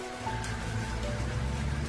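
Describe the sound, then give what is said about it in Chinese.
Steady pattering rain, a dense continuous hiss with no pauses, layered over a low droning rumble underneath; no voices. “淅淅沥沥的雨声吞没了所有的一切”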